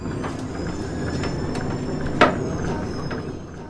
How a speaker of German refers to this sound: Der Kreis Minden-Lübbecke nennt sich ja auch stolz Mühlenkreis, denn wirklich an jeder Ecke steht eine alte Mühle. Nein, die vielleicht auch, aber gemeint sind natürlich die großen, stolzen Windmühlen und die haben einen ganz anderen Sound.